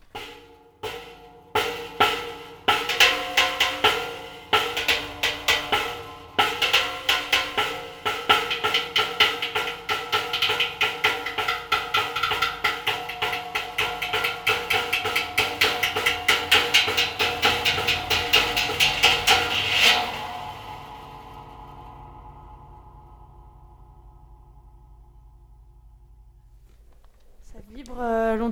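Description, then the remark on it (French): Rapid metallic strikes ring out through a reverb made from an old motor oil barrel fitted with a huge spring, building a dense, shimmering wash of resonance for about twenty seconds before fading into a long, quiet decay. “Donc euh, il me permet d'apporter énormément de réverb, d'autant que j'ai rajouté dessus un énorme ressort donc, euh, qui permet de faire résonner les sons.”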